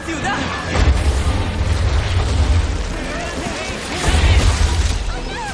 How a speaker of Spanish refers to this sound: El muro salta por los aires. La onda expansiva tira a los tres amigos al suelo.